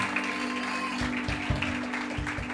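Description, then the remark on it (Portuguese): An audience claps together for a music team in a steady, dense wash of applause, sustained across the moment with some low thumps and a faint background hum. “Gente, eu queria pedir uma, uma salva de palmas específica para essa equipe de música maravilhosa, maravilhosa.”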